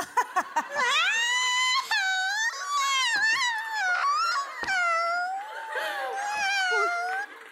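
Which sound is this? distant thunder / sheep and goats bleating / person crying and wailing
person crying and wailing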